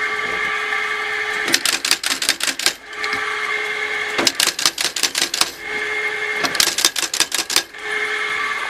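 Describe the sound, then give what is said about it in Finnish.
A belt-driven shoe factory machine, started by pressing so its belt begins turning, runs with a steady mechanical hum, breaking into three quick bursts of sharp, rapid tapping, each lasting about a second, fairly loud. “Tuolla on tämmönen hihno, joka lähti pyörimään.”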